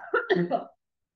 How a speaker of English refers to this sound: I'm going to cough, sorry,